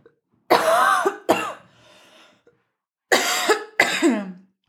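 coughing and throat clearing

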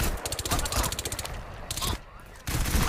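video game gunfire

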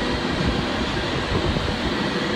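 high-speed train passing

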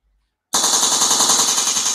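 gunshot sound effect

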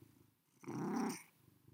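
domestic cat vocalizing

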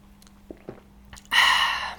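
sipping coffee

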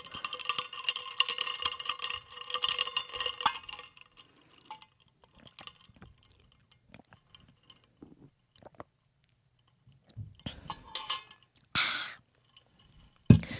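ice clinking in glass

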